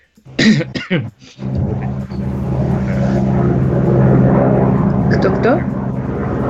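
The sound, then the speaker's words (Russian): A low-flying helicopter roars overhead, its heavy, droning rumble swelling in and holding steady and loud, with a voice speaking briefly at the start. “Ну все, а это вертолет, оказывается, низко летит.”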